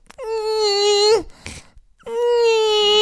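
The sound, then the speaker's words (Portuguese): A person straining during a workout imitates a koala-like moan: two loud, drawn-out nasal groans, each sagging in pitch at the end, with a harsh breath between them. “Uh, ora, eu não faço isso, eu faço assim uma, uma espécie de gemido que parece um, um koala a, masturbar-se.”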